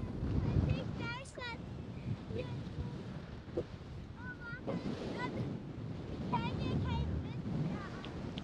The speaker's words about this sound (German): ganz schön windig, ja.